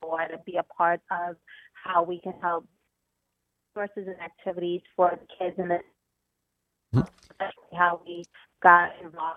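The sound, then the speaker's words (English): A voice on a narrowband cell phone call keeps breaking up, cutting in and out with abrupt silent gaps between choppy bursts of speech and a sharp click near the end. “Because you're breaking up a lot and I use Sprint, and I break up a lot on my cell phone.”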